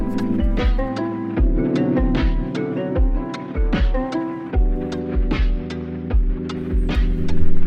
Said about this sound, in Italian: Sigla!